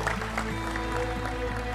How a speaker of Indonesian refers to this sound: tepuk tangan untuk mas ini tepuk tangan